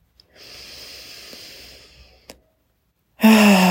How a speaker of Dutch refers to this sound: Weet ah, je dat overdreven uitademen waarbij je echt geluid maakt? Want dat geluid, dat zorgt voor een stukje vibratie. Je kunt dat vergelijken met een, eh, met een soort harp waar je op speelt.